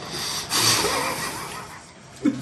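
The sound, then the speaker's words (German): A pencil scratches steadily across paper as someone writes, a dry, continuous rasping that rises and falls slightly in strength, ending with a soft low bump. “Kann man jemand schleifen, den Bleistift wegnehmen”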